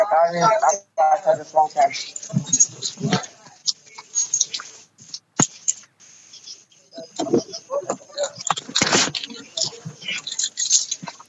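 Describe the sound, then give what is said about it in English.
Someone climbs into their car during a phone call, heard over the phone line: rustling and shuffling, a sharp thump partway through, then more muffled handling noises and scraping movement. “I hear you in that car there.”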